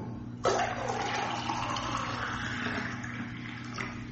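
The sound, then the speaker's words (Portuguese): Drinking water starts pouring abruptly and splashes steadily into a container for several seconds, fairly loud, over a faint low hum. “Tá acabando a água, Bímola. Né? Tá, vou pegar aqui, mas. É, vou tomar cuidado.”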